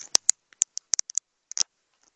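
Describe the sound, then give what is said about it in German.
A string of sharp little clicks, taps and rustles, about a dozen in quick irregular bursts, fairly quiet, as a phone is handled and a charging cable is plugged into it to charge it. No one speaks. “Falls ihr gerade so ein komisches Raschen hört, ich muss ähm, mein Handy schnell an die Ladestation machen.”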